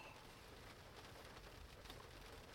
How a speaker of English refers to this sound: And they can hear the rain sound and they can zen out.